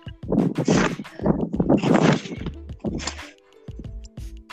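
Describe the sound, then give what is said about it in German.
Repeated heavy thuds of someone bouncing on a trampoline, fairly loud in a quick, slightly uneven rhythm, with springy creaking tones toward the end. “Ja, rat mal, wo ich bin. Auf dem Trampolin.”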